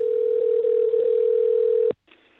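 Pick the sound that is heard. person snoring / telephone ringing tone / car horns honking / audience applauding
telephone ringing tone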